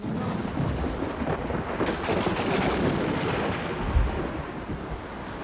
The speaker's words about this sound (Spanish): Señora Julia, está lloviendo fuerte.